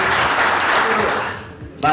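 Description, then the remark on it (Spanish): A crowd at a wrestling show applauds the trainers in a dense, steady burst of clapping that gradually thins and fades before a man's voice starts speaking at the end. “Un aplauso, por favor, a los profesores.”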